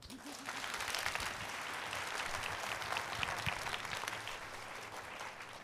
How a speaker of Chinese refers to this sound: 阿们，来给我们拍拍手。